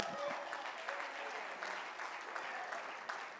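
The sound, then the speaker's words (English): An audience claps their hands in steady, dense applause at the preacher's call to clap, a continuous crackle of many overlapping claps with faint voices mixed in underneath. “Come on, clap your hands.”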